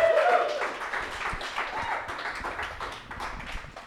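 A show audience claps steadily for a few seconds to welcome a guest, a dense, continuous patter of many hands that stays fairly even in loudness before easing slightly toward the end.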